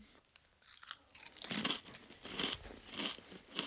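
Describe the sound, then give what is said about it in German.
Someone crunching potato chips: a steady run of crisp, crackly chewing bites, loud and roughly evenly spaced, after a quieter first second, with no talking. “So wie deine Chips gerade. Ich hoffe, man hört es in der Aufnahme.”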